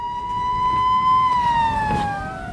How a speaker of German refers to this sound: Wir schalten um zum Hessischen Rundfunk nach Frankfurt. Im Mai 1959 erklang im hessischen Rundfunk erstmals diese legendäre Sirene.